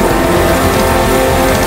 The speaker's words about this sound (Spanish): Demos y aplaudamos a Él.